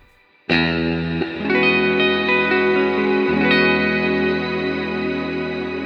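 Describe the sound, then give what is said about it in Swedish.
A big guitar chord rings out through a lush shimmer reverb, struck a few times and sustaining loudly, with bright, high overtones hanging over the notes. No voices. “Svulstiga ackord. Få höra ett, ett stort ackord nu.”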